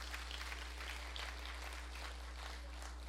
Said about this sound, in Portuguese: É, vamos dar uma, uma, vamos aplaudir mesmo assim.